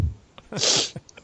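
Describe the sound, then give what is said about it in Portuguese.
A single sharp sneeze bursts out, a quick intake followed by a loud hissing burst of breath that fades fast, with soft background noise. “Saúde.”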